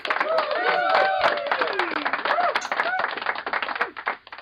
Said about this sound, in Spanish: La sección ahí. Aplausito.